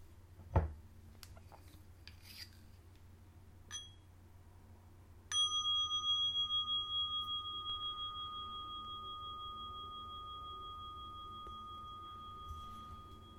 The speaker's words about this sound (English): By the way, let me know how the bell's working out for you. I'm going to keep trying new things here, otherwise, this just becomes a, a rush through uh, a monologue.